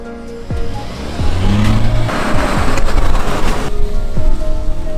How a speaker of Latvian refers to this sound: bet tagad es esmu Jarisā. Maza forša dinamiska pilsētas mašīnīte, izdevīgākie tarifi. Un jā, es braucu.